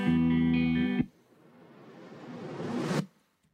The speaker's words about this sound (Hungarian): igazából egy ilyen reverse sweep-el csináltuk meg azzal, hogy kiürül teljesen a zene, tehát kicsit így be, behúz. És, tehát ez, ez egy visszafordított uh, hangeffekt? Aha, uh, kb. ilyen.